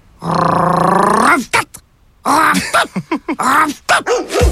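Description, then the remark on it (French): A dog barks and vocalizes loudly: one long drawn-out howling bark, then a run of short, yowling, almost speech-like barks and grumbles with brief gaps between them. “J'ai rêvé que le chien parlait. Ben voyons. Puis qu'est-ce qu'il disait?”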